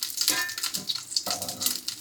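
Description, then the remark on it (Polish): Fat sizzles and crackles steadily in a frying pan where cutlets are frying, a dense bright hiss dotted with tiny pops, with a faint scrape of a utensil partway through. No one speaks. “Słyszę, że tam tłuszcz jeszcze skwierczy, więc chyba nie będzie.”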